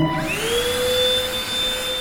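A small vacuum cleaner built into a small wheeled cleaning robot with cloth brushes spins up, its whine climbing in pitch, then settles into a steady, fairly loud hum with rushing airflow. No voices.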